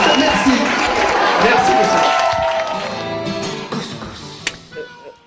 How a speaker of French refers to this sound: Applaudissez-moi s'il vous plaît.